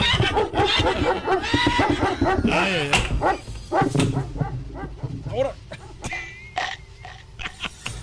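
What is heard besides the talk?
dog barking sound effect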